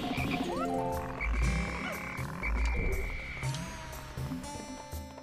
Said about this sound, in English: There's a frog. I'm gonna let him approach.